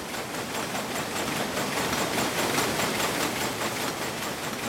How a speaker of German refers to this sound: Möglich wird das dank einer Webmaschine, die bis zu 13 Meter breite Bahnen herstellen kann.